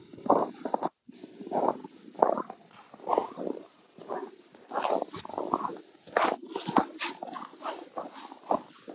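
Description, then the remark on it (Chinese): Steady footsteps crunch through snow in a botanical garden after snowfall, about a dozen dry, gritty steps at an even walking pace, each a short scrunching burst. No one speaks. “我踩在雪地上的声音很好听吧？”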